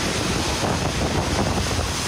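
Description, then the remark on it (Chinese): Strong wind of Typhoon Koinu in Taiwan roars over crashing waves in a dense, steady wall of noise, with low rumbling gusts buffeting the microphone throughout. “今日暗时啊吼，愈暗风会愈大。 风吹甲真透，互人用要徛袂在，灯影一波煞一波，咱四国观测到五公尺至六公尺悬的海影。”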